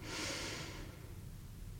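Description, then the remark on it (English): A single slow, deep breath during a guided seventh-chakra meditation: an airy, hissing rush that swells briefly and then fades into quiet background noise, with no voices. “Brightening, clarifying, opening, and breathing out. Release. Breathe in.”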